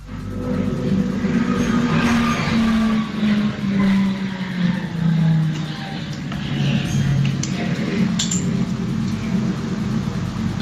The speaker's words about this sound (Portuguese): É, não, isso foi um metrô. Eu, o som foi do, do metrô. Pensei que tinha sido um avião. Passando na estação.